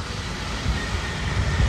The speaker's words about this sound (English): we'll pause for this wonderful red truck to pass. Uh, it was a dump truck.